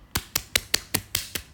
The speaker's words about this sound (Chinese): 来，让我们给这个同学一些掌声。